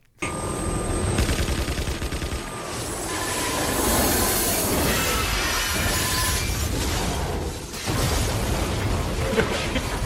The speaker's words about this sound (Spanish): Bajarle un poco el volumen a la gente, porque ahora es cuando viene una fiesta bastante gorda. Cuando veis que paran un poco las explosiones, volver a darle volumen.